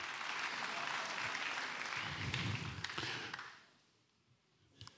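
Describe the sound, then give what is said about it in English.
An audience claps in a steady, dense wash of applause that holds strong for over three seconds, then fades out quickly into near quiet, with a few faint scattered claps at the end. “It's okay to clap, clap is free.”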